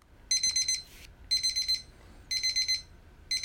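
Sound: kitchen timer beeping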